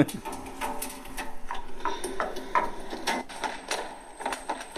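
Teenagers drum on trash bins, landing a quick, uneven run of clattering, hollow strikes with a bright metallic edge, the hits piling over one another for several seconds without any voices.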